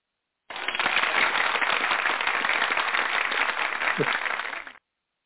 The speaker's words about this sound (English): I just heard him uh, hit the applause button.